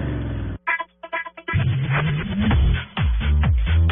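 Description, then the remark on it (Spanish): A loud car engine roars and revs, its pitch repeatedly climbing and dropping after a brief choppy pause near the start. No one speaks. “rugidos en autos y motos de Blue Radio.”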